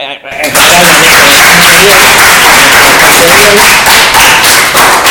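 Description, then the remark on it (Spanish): After a brief moment of quiet, a group breaks into loud, steady applause that keeps a dense, even clatter for about five seconds, with a few voices mixed in underneath. “Con lo cual, y haciendo un poco de resumen, vamos a darles un aplauso porque...”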